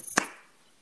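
One sharp hand clap with a crisp, bright snap and a short ringing tail that fades within a fraction of a second, against an otherwise quiet background with no voices.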